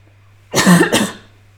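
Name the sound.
cough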